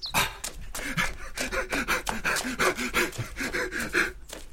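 A man pants hard and fast, with rapid ragged breaths, some partly voiced, repeating in a steady rhythm close to the listener for several seconds, with no other sounds.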